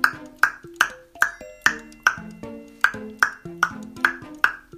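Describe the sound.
A six-year-old child from Berlin imitates a great spotted woodpecker with about a dozen sharp knocking clicks in a steady, evenly spaced rhythm, each hit leaving a brief ringing tone, with no talking.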